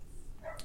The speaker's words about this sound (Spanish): Bueno, disculpad por el perro.